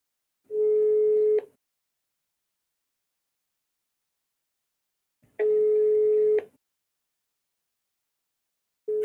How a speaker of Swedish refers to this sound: Nu ringer jag.